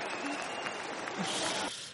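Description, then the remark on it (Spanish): A brief burst of applause, a dense wash of clapping from a small group that holds steady for about two seconds before thinning out toward the end. “bueno, no sé si aplaudir.”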